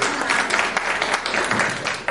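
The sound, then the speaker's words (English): A church audience applauds steadily, many hands clapping at once in a dense, fairly loud burst that continues without pause for a couple of seconds. “And I, and I, clap, that's fine.”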